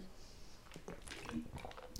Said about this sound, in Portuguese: Pausa para a água.